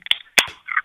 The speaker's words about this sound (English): Crack a cold one. Did you just crack another one? Sure did, motherfucker. You got BLs or PBRs? These be PBRs that I got for Christmas from my GM.